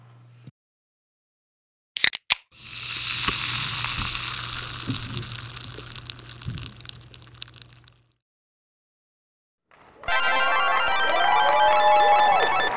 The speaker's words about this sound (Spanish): Esto era una lata de refresco abriéndose. Efectivamente, hay que tirarlo al contenedor amarillo, donde los envases.